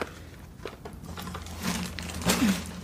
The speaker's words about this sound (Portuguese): Eu vou guardar aqui na sacola.